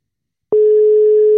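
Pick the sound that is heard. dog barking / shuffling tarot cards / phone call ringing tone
phone call ringing tone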